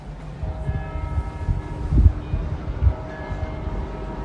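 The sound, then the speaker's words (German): Church bells ring steadily, their sustained tones overlapping and hanging in the air over a low background rumble, with a couple of heavier strikes standing out. “Die Glocken läuten.”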